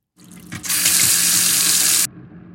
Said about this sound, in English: And this is how water running in my kitchen sink sounds.